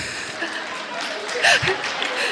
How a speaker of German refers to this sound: Ich höre ganz viel Applaus aus den hinteren Reihen.